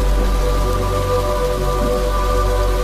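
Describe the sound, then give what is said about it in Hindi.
Steady rain falls and patters on a surface, a dense continuous wash of raindrops at an even, fairly loud level with no voices or other sounds. “काफी समय तक दोनों के बीच में बिल्कुल खामोशी पसरी रही सिवाय बरसाती बूंदों की आवाज के और कोई आवाज नहीं थी उस समय”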